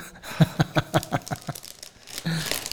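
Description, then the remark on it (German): Plastic crinkling and rustling, a quick series of sharp crackles as a bottle is pulled out and unwrapped from its own individual plastic bag, ending in a longer scrunch. “Das ist in einzelnen, Einzelnen Tüten, Ja, also- einzelne Flaschen in einzelnen Tüten.”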